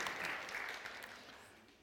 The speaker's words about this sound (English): That'll do. That'll do. Round of applause. Great job.